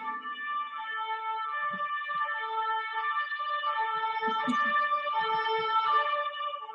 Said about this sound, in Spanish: ¿Qué es eso? ¿Ambulancia? ¿Tren? ¿Qué es? es algo, sí, ambulancia o bombero eso Que es tan normal en esta, aquí nunca pasa nada, pero suenan sirenas todo el día.